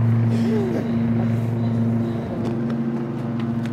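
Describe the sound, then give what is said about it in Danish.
A lawn mower engine runs steadily, a continuous low droning hum with a buzzy, even tone and slight wavering in pitch, holding at a constant loudness throughout. “Det, er i hvert fald, det vil i hvert fald være synd at læse op til plæneklipperen her.”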